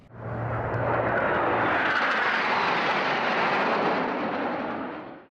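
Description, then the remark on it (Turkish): A jet aircraft roars past at an air show in a broad, steady wash of engine noise that swells and holds loud before fading out, with a low hum at the start and no voices. “Sosyal medyadan binlerce kişinin canlı yayına takip ettiği gösteriler havacılık tutkunlarına keyifli saatler yaşattı.”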